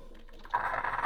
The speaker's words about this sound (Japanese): 大丈夫かななんかコーヒーメーカー音はすごいしてるんですけど一滴も落ちてこないっていうこんなことある大丈夫かなすっごいいい香りはしてるんですけど